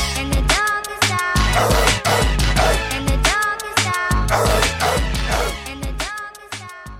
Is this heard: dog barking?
yes